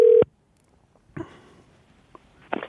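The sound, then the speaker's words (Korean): A phone call being dialed to a radio show listener, a sixth-grade elementary school student: a brief steady mid-pitched tone cuts off, followed by a pause and a few crackly clicks and line noises. No one speaks. “자, 2259님 전화 한번 걸어볼까요?”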